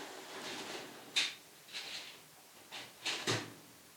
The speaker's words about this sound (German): Ach, das ist die Nachbarin, die ihr Rolle runtergelassen hat. Ach so, ich habe mich ein bisschen erschrocken gerade.